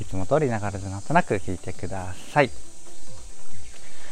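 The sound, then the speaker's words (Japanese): Cicadas drone steadily outdoors on a hot morning, a constant high buzzing that runs through the whole stretch, with a person talking over it during a morning walk for the first half before the insects carry on alone. “ということで、今日もですね、暑い中、えーと、朝のお散歩がてらセミの声とかとともにお話をしていくわけなんですが”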